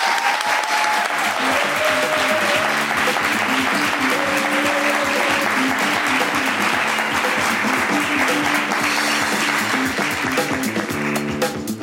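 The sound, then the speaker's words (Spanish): Sustained applause from an audience welcoming a photographer as the first guest, loud and dense with clapping, with a bright musical tune playing underneath. “Un de aplauso para ella.”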